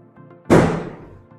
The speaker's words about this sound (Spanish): Disculpen los cohetes.